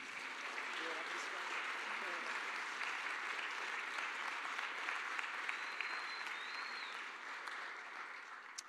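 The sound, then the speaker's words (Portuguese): Sustained applause from a church audience, a dense steady wash of many hands clapping at an even level for several seconds before tapering slightly at the end, with faint voices mixed in. “Acho que eles todos merecem uma grande salva de palmas, né?”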